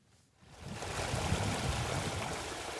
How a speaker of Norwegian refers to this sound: bekken som renner ut i elva Folla like nedenfor sentrum